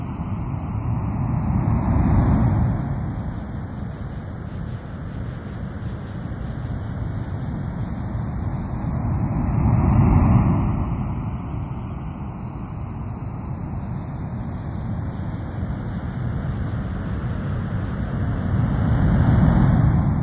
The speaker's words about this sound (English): as you listen to the sound of ocean surf, move your body into a more relaxed position.